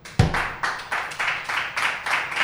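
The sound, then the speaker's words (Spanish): Steady clapping from a small group of hands, a quick run of bright claps at an even rhythm, with one sharp louder hit near the start. “Aplausos para este gallo.”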